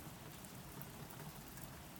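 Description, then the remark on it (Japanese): Steady rain drums on a roof and patters against windows, a dense, even hiss of countless drops with no pauses, quiet, and no voices. “雨の音が聞こえた屋根を打つ雨の音窓を叩く”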